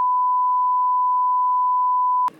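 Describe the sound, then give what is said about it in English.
A phone lets out one long, steady electronic beep at a single pitch, loud, holding for about two seconds before cutting off abruptly into a brief rustle. “Jesus Christ, whose phone was that?”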